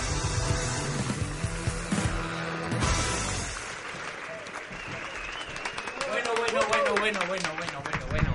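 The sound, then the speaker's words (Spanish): A crowd applauds steadily for several seconds, the dense clapping swelling louder toward the end, with voices and a few shouts mixed in beneath it. “Gracias por esos aplausos.”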